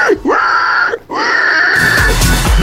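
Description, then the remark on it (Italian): A young boy lets out loud, piercing shrieks: two long, high squealing cries with sliding pitch, a brief gap between them, the second turning rougher and more strained at the end. “Quando i bambini fanno oh, che meraviglia.”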